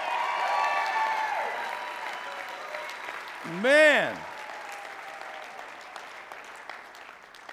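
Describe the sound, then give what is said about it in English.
A crowd claps steadily in sustained, dense applause for four speakers, with a single voice letting out a rising and falling exclamation partway through as the clapping continues. “Give it up for these four.”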